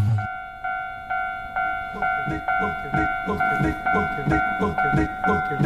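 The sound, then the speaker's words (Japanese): A railroad crossing bell dings in a steady, rapid rhythm, roughly twice per second, each ring clear and metallic. It keeps going without a break. “踏切の音は元っといいものなんか。”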